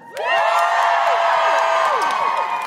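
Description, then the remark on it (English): An audience erupts into loud, sustained cheering and high-pitched whoops when asked to cheer if they have seen Six, the Musical, many voices overlapping in a steady roar that holds for a couple of seconds before easing slightly. “Um, could you give me a cheer if you have seen Six, the Musical.”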